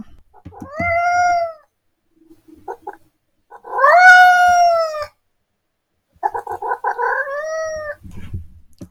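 Several long, drawn-out cat meows in sequence, loud, with a strained, wavering quality that sounds almost like a hen's squawk; short pauses separate the calls and no one speaks.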